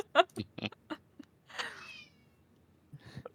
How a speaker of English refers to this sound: oh, a kitty. Yeah. I'm sorry, that was Tyson. That's fine. Special guest. yeah, special guest podcast featuring Tyson the kitty. He's very excited.